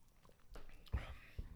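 Quiet sips of banana seltzer, a fizzy drink: a few short slurping mouth sounds with soft breaths in between, the loudest sip landing near the middle.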